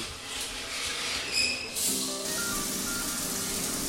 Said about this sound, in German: Oh, die Dusche.